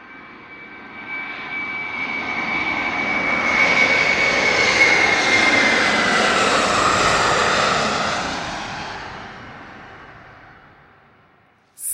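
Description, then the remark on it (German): An airplane engine roars in, swelling to a broad, steady drone with a thin whining tone, then fading gradually away over about twelve seconds. No one speaks. “Denn aber mach schnell, denn da kommt schon wieder unser Flieger.”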